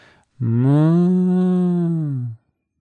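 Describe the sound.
A person imitates a bull's moo with one long, deep, steady lowing call of about two seconds, loud, with no other talking around it.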